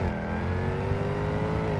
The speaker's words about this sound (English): Climb into the driver focused cockpit. Start the engine with a simple push of a button, and suddenly it's just you and 575 horsepower.